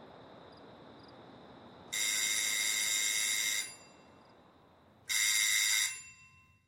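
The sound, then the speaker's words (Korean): A doorbell at Holmes's rooms rings twice, a long bright metallic trill followed after a pause by a shorter one, loud against a quiet hissing background with no voices. “나는 초인종을 울린 다음 전에는 내 방이기도 했던 그 실내에 모습을 드러냈다.”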